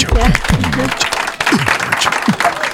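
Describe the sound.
An audience applauds steadily for the whole stretch, a dense crackle of many hands, loud and unbroken, with a few voices calling out over it.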